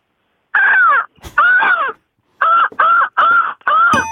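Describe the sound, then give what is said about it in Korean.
A person's voice imitates a magpie that has found food, with six loud, harsh, raspy caws: two longer calls, then four shorter ones in a quick rhythm. No other talking is heard. “까치가. 예. 먹이를 발견했습니다.”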